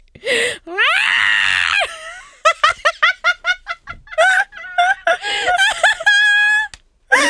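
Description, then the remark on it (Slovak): A person imitates an angry yowling cat, with long wavering howls followed by a rapid series of short choppy cries, loud, then breaks into laughter. “Ja chcem urobiť tiež mačku.”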